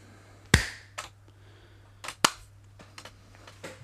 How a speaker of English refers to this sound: We'll just do another clap, surely, and then yeah, yeah, you can find the break.